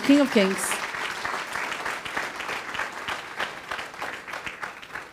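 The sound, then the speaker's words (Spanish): An audience breaks into loud, sustained applause for the King of Kings, a dense wash of clapping that holds steady for several seconds, with a brief voice or cheer rising at the very start. “Podemos darle un fuerte aplauso al Rey de Reyes.”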